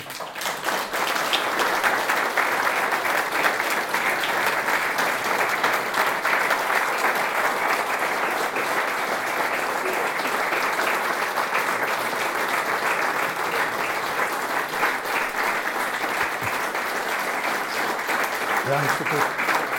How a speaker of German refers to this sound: Jetzt können wir dann auch noch, jetzt könnt ihr dann auch noch aufhören zum Klatschen und noch Fragen stellen und, äh, und noch, äh, das, äh, ja.